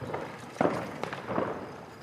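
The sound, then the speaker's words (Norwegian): Firecrackers go off outdoors as Indians celebrate Diwali, with a few sharp pops and crackles scattered over a steady wash of background noise, moderately loud. “Sånn høres det ut når inderne feirer diwali, den store høytida som handler om Ja, hva handler den om, egentlig?”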